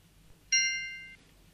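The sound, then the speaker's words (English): A single bright bell ding rings out clearly as a cue to say the next word in a word-memory exercise, its stacked high tones sustaining briefly before fading, alone against a quiet low background hum. “From now on, just say the next word when you hear the bell.”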